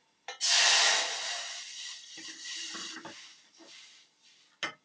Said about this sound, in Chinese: 这是你拿起你的这个水啊，四百五十 CC 的，好玻璃量杯的水，把水倒到你的锅子里面，哦，会有滋滋的声音，哦，不要怕哦。